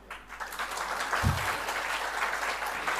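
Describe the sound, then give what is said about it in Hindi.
An audience claps steadily for a few seconds, a dense wash of many hands with no voices over it and one brief low thump partway through. “ताली नहीं बजाओगी क्या”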